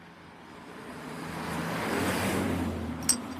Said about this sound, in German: Und da kommt ein Auto. Jetzt müssen wir kurz auf Seite.